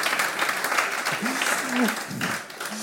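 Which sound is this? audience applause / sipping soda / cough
audience applause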